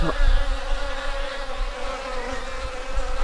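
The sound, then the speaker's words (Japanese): A steady drone of insect wings buzzing continuously at the hanging blossoms of sagaribana trees beyond a mangrove at dusk, with several overlapping hums blending into a dense, unbroken whir, no voices present. “下がり花の花の下を通ると甘い香りとともに聞こえてくるのは虫たちの羽音。”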